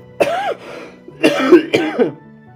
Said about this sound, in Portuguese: Desculpa aí pelo tossidão sangue, ofendeu o ouvido de alguém.